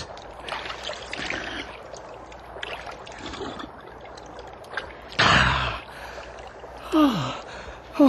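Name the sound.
drinking water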